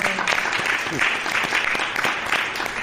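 An audience applauds steadily, a dense, even patter of many hands clapping at a fairly loud, constant level with no voices standing out.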